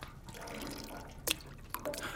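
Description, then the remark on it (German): Water drips and splashes onto shoes to test whether they are waterproof, in a few quick impacts over a soft, continuous trickling background, with two brighter splats standing out near the end. “Versuchen wir es nochmal mit Wasser. Hm, wo, wozu? Um zu sehen, ob sie dicht sind.”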